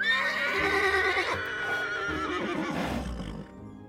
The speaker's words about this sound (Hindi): गाड़ी खींचने वाले घोड़े बॉक्सर और क्लोवर भी धीमे से चलते हुए साथ साथ आए